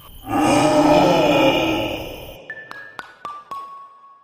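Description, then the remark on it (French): A bear lets out a loud, drawn-out roaring yawn lasting about two seconds, followed by a short run of bright, ringing chime notes stepping downward. “Mais quand on baille, souvent les autres baillent aussi. Et c'est ce qui arrive avec l'ours qui fait.”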